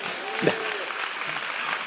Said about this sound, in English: Glory to God. Amen. Y'all get a Lord a hand clap for that.